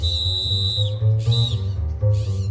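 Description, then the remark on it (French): A shrill whistle blows in repeated bursts, a long steady blast followed by shorter ones, loud over a low rumbling background; in a children's story, the little wolf Chapeau keeps blowing his whistle. “Chapeau ne répond pas et il continue de siffler, de siffler.”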